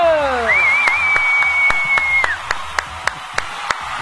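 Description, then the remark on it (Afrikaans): Steady, evenly spaced handclaps from people in a TV studio welcoming a guest to a rugby talk show, about a dozen sharp claps in a regular rhythm, joined at the start by a sweeping whistle-like tone that holds a high pitch before fading. “Ryty ons organise mense hier om dan dit te klap hoor.”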